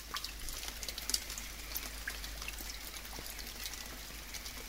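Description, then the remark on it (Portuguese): Storm rainwater collected on the leaves of a sumaúma tree, over 40 metres tall, in the Amazon forest drips steadily, scattered drops pattering irregularly into a large puddle on the ground over a soft, constant wash of wet background noise. Fairly quiet, with no voices. “A água do temporal, acumulada nas folhas de uma suma a uma, continua a cair e forma um enorme poço no solo.”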